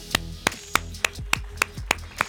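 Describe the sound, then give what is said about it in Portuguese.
Applause in the form of steady, evenly spaced hand claps, about eight sharp slaps in a little over two seconds, moderately loud with no voices. “Aplausos. Mais alto.”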